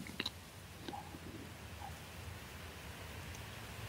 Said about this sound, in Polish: Na zewnątrz jest wiatr.